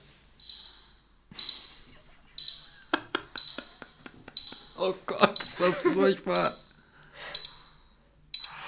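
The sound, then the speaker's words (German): A fire alarm, stuck on after someone apparently pressed it, beeps steadily in the stairwell leading up to an ENT doctor's practice, one shrill high-pitched tone about once a second, continuing without pause while a person briefly speaks in an exasperated tone partway through. “Und das war nämlich so eine Art Feueralarm und irgendwer hatte da scheinbar was dran rumgedrückt, dass der die ganze Zeit auf Alarm war und gepiept hat”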